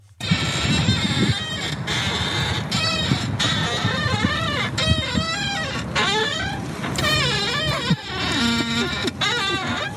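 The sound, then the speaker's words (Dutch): A Tesla Model X's suspension squeaks and creaks over and over, like a rusty unoiled swing, a loud, dense run of high-pitched squeals and chirps lasting the whole stretch with no talking. “Het klinkt een beetje als... Eh, de schommel bij de kinderspeelplaats bij ons in de buurt die niet geolied is.”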